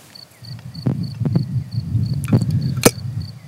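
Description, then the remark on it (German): Fizzing carbonation, formed naturally during fermentation, escaping as a jar of asparagus fermented in salt brine is opened: several sharp hissing pops and crackles over a low rumble, with a faint, steady, high pulsing tone throughout. “So, das war, die, das war die, die, Kohlensäure, die sich da natürlicherweise, ähm, die da entsteht.”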